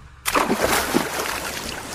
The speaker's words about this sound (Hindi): आव देखा न ताव वो झट से समुद्र में कूद गया